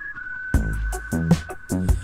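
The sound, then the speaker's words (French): A song's instrumental opening: a steady, high whistle-like tone holds throughout, then rich harmonic notes come in after a moment in short rhythmic bursts. No one sings or speaks. “une chanson pour vous sortir de chez vous en toute sécurité. On écoute ….”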